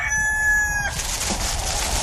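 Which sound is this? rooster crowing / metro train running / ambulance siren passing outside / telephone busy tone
rooster crowing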